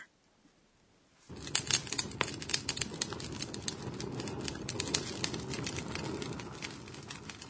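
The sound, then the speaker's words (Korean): A campfire crackles steadily after a brief quiet start, with sharp irregular pops and snaps over a low rushing roar of flames, fairly loud, no voices. “모닥불 소리 같네요.”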